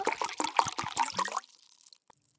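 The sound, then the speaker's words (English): Water is poured into a glass in a short burst of gurgling splashes with a rising pitch as it fills, then it stops and fades to near silence. Fairly clear, with no voices. “Unless you're pouring a glass of water for a thirsty visitor, then better keep your eyes open and try not to spill.”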